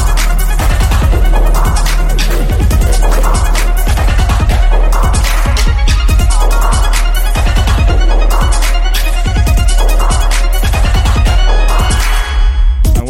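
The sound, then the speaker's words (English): A loud dubstep track, played as storm music, plays throughout, with a constant heavy sub-bass, punchy rhythmic drum hits and dense, gritty synth layers, with no voices. “Playing you some storm music, storm soundtrack.”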